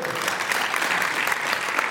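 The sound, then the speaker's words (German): Steady audience applause for an intern, a dense wash of many hands clapping at an even, moderate loudness throughout, with no voices standing out. “Ein Applaus doch gerne mal für ihn, bitte.”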